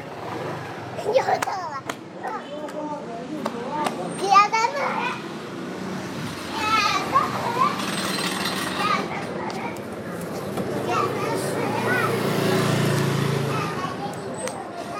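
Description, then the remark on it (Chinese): Several children of families who run shops on Huimin Street (the Muslim Quarter) play and run together in an alley, their high-pitched voices shouting, chattering and squealing happily in bursts over a steady low rumble that swells toward the end. “然后，然后可能就是几家的小孩就在一起玩，然后他们就在那个巷子里跑，然后呃，我也听不懂他们在说什么，但是就是你能听出他们好像很开心。”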